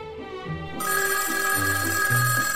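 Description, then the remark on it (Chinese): A woman's telephone rings with a bright, sustained, high-pitched electronic tone that starts abruptly partway in and holds steadily at a loud level, while soft low musical notes play underneath; the ring is heard while she is dreaming. “这里没有铃儿啊，在这么严肃的场合里，所有人的电话呢都是关着的，但是，他仍然能听到铃声。”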